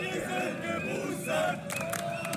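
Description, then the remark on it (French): A crowd of young protesters at a spontaneous demonstration in Munich chants the slogan "We are boosted" in unison, loud, with the shouted rhythm rising and falling over a noisy background. “Nous sommes boostés, scandent ces jeunes fiers de leurs trois doses de vaccin.”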